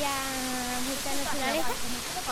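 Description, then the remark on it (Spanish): A waterfall's steady, loud rush of water on a hiking route fills the background with a constant hiss while a person speaks over it. “Antes de ver la cascada se intuye por el sonido del agua y su imagen supone una recompensa al esfuerzo.”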